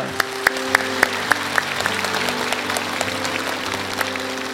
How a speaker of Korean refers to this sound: 우리 하나님 앞에 영광의 박수 올려드립니다.